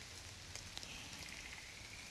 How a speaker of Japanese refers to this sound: 今日はこの寒い中雨の中そこまでサウンドスケープが良かったわけではないんですが皆さんに森からお届けした次第です